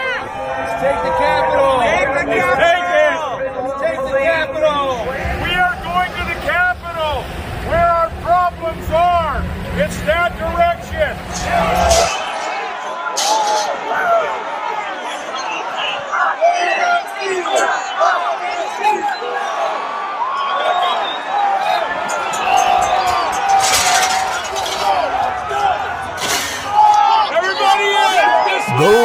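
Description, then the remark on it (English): A large rioting crowd of a president's supporters at the US Capitol insurrection on January 6, 2021 roars and shouts continuously, many voices overlapping into a loud, chaotic din, with sharp yells and occasional bangs rising out of the steady noise. “are the familiar sounds of the Capitol insurrection carried out by the bonded supporters of a president who did not accept his loss of an election”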